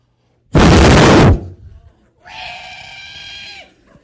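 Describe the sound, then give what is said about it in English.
A voice imitates a screaming locust: a loud, harsh hissing burst, then after a short pause a sustained, shrill, buzzing screech lasting over a second before cutting off. “this locust just starts screaming and four grown men are now scrambling over each other”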